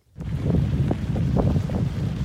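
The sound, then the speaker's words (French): A strong headwind roars and buffets the microphone in a loud, continuous low rumble while cycling at barely over 10 km/h, starting abruptly and never letting up. No voices. “Vent plein de face.”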